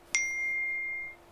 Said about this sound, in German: Das war mein Telefon